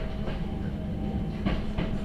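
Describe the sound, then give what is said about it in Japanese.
A mountain railway train running on its tracks as it arrives at Ohiradai station, where it performs its second switchback: a steady low rumble with a few sharp rail clicks, including a quick pair near the end. No one speaks. “まもなく大平台大平台ですお降りの際はお足元にご注意くださいお出口は右側です電車はこの駅で2回目のスイッチバックを行います”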